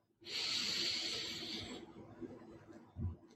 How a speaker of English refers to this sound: Let's take a deep breath together, breathing in